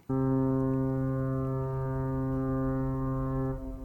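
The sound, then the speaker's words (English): A single loud horn-like alarm, the Brexit alarm, blares in one steady, buzzy, low-pitched blast for about three and a half seconds, then cuts off abruptly. No one speaks. “It is, of course, the Brexit alarm.”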